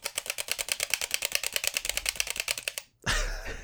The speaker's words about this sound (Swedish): Jag har ju en kontroller, jag kan ju visa hur det låter.